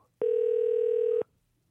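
A single steady telephone ringback tone from a radio show calling a listener sounds for about a second, a flat sustained mid-pitched beep that starts and stops abruptly, with near silence on either side and no voices.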